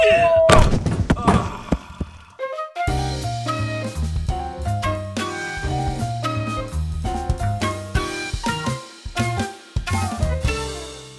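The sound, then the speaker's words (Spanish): A heavy thud and clatter of a blind man with a white cane bumping into a door, a few quick knocking impacts, then a melodic musical passage takes over and plays on. “No, espera, señor, no, esa puerta”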